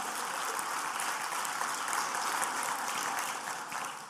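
A crowd claps steadily throughout, a dense, continuous wash of many hands applauding at an even level with no speech over it.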